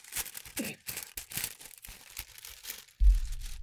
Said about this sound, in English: this is here's some ASMR for you. It's binaural. Yeah. Can't hear anything. Shit. uh, let me let me crinkle some paper.